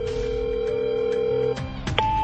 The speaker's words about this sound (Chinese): 老谭又拨打了侯大力的电话。